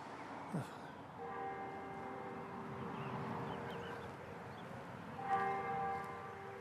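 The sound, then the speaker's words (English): A bell tolls faintly, two slow strikes a few seconds apart, each leaving a long, humming ring that fades into quiet background ambience. “Yeah, no, it's there. It's so faint. Dong, dong.”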